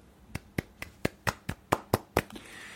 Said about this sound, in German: Und äh, wir müssen jetzt eine kurze, also wir müssen kurz mal feiern. Ein ganz kurzer Applaus, warte.